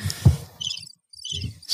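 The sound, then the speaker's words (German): Someone imitates a bird with their mouth: two short runs of high, fluttery chirps, separated by a brief silence, with some low breathy noise underneath. “das bin ich. Da kommt der Vogelflüsterer raus.”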